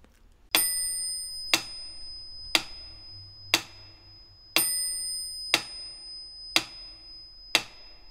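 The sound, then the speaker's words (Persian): A metronome with a swinging metal pendulum ticks steadily at 60 beats per minute in four-four time, with a brighter, louder accented click on each first beat; the clicks are crisp and ringing, with no voices. “یک آونگ فلزی با یک قطعه متحرک روی اون داره که به صورت معکوس به سمت چپ و راست مثل پاندول ساعت حرکت میکنه و صدای تیک تاک مانندی به وجود میاره با هم یک نمونه صدای مترونوم در وزن چهار چهارم رو بشنویم در سرعت 60”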